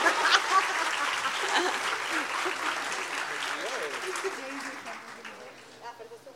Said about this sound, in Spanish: Un aplauso a la Valle JJ, por favor.